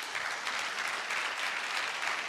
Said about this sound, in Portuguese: Amém? Então, um salve de palmas a Jesus.